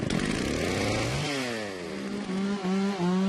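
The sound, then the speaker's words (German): A chainsaw felling trees in the rainforest of Suriname runs loud and steady, its buzzing engine revving up and down in pitch as it works, with a harsh rasp under the whine and no voices. “da freut er sich, dass er heute ein paar Bäume fällen kann.”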